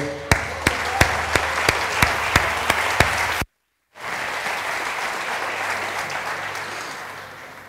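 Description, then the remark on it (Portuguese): An audience applauds steadily, a dense wash of clapping with a few sharper claps standing out at a regular beat; it cuts off abruptly, then resumes as continuous applause. “Dá um aplauso aí.”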